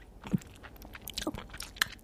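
Soft mouth noises: a few wet clicks and a quiet gulp as someone holds their breath and swallows saliva to stop hiccups, with no talking and a hushed background.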